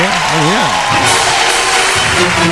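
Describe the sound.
A dense burst of clapping applause, loud and steady throughout, with a man's voice talking over it at the start and faint voices underneath, applause for reaching six followers on Twitter.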